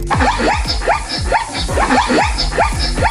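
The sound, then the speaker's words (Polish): A zebra calls in a rapid run of high, barking yelps, each a short rising-and-falling whoop, repeating about twice a second, loud with no talking. “Naprawdę tak robi zebra?”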